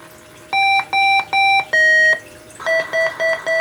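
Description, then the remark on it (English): An electronic alarm in a video game beeps loudly and clearly: three steady tones, one longer held beep, then four quicker beeps at a shifted pitch, with no voices over it. “Okay, I'm gonna say right off the bat, the beeping sound you're probably going to hear in a second.”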